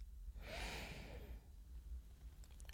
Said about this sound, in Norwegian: Puste inn og puste ut. Puste inn. Puste ut.